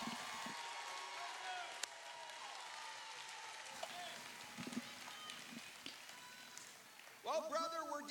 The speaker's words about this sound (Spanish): Vamos, démosle un grito al Señor. Démosle un aplauso al Señor esta mañana.